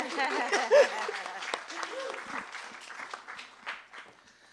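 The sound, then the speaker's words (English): An audience claps steadily after a writer is introduced. It is a dense patter of many hands that fades gradually over a few seconds, with some voices and a short vocal sound mixed in at the start. “You may clap now.”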